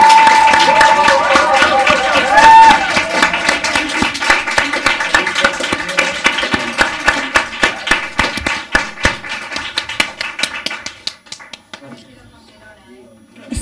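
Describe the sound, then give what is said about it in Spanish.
An audience breaks into loud, dense applause to encourage a guest to sing. The applause holds steady for several seconds, then thins into scattered individual claps before fading to near silence. “e vamos, a, darle un aplauso tremendo para convencerla y que, y que nos cante un poquito, ¿no?”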